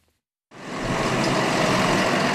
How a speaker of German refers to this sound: Die Abgeordneten der Bauer Bürgerbewegung fuhren heute gut gelaunt mit ihren Treckern vors Parlamentsgebäude in Den Haag.